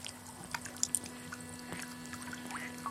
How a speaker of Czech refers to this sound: Pohyb řeky je neznatelný, neviditelný. Někdy ho vyjeví spadané listí, nebo chmíří, nebo pil. Hladina je plocha, pohyblivá plocha. Řeka teče. To je asi ten fenomén. Stále teče nepřestává.